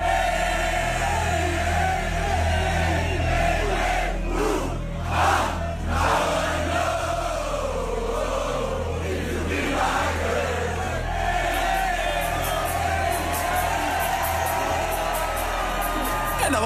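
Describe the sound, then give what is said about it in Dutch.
A large festival crowd chants and sings together in unison for an encore, trying to bring the DJ back to the turntables after the last track, loud and continuous, with scattered whoops and shouts rising over the dense roar of many voices. “Ze gooide hun eigen zangkunst in de strijd om Peggy weer achter de draaitafels te krijgen voor een toegift”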